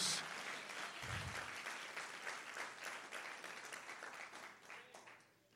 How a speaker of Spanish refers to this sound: Vamos a darle un aplauso más fuerte porque tus hijos serán olivos en la casa de Dios.